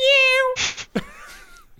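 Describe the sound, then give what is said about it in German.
A person does a high, drawn-out meow in imitation of a cat, followed by a sharp breathy hiss and a short sliding vocal sound, fairly loud. “Ja, Katze kann ich auch.”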